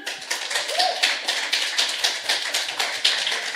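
A crowd applauds to welcome the panel of a radio programme, a dense patter of crisp, overlapping claps holding at an even level for a few seconds with no voices over it.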